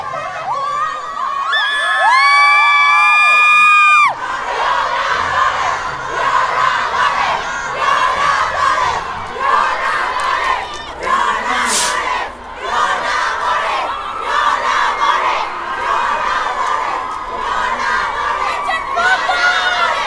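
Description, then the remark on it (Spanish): A large crowd of women protesters chants slogans and shouts together in a dense, continuous, loud roar of many voices, opening with a few seconds of shrill whistle-like tones before the chanting takes over, as the protesters throw purple glitter in the faces of policewomen. “Las manifestantes cantaban consignas y aventaban diamantina morada a la cara de las mujeres policías.”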